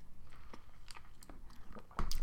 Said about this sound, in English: Got to drink some water.